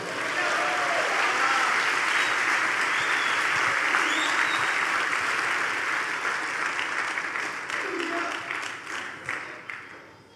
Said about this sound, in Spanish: Si lo crees, dale un aplauso al Señor.